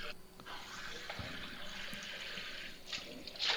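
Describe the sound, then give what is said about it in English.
Five cups of water pour steadily into a pitcher while a recipe is being made, a continuous splashing gush that rises slightly in pitch as it fills, fairly loud with no talking over it. “Okay, so here in our pitcher. Now here's what makes this recipe so easy, y'all. Tell us. Five cups of water.”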